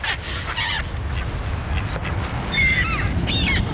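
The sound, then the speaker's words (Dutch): A male coot gives several short, high-pitched squeaking calls in bursts, thin and piercing like a rubbing bicycle wheel, over a steady low rumble of background noise. “Dit is een mannetje meerkoes. Die heeft een hele hoge piep. Als een soort aangelopen fietswiel.”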